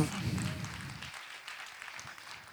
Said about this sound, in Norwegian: Så du kan få lov til å gi deg selv en stor applaus for at du er en del av dette. Det er svære greier. Du, du, kan gi deg selv en større applaus enn som så.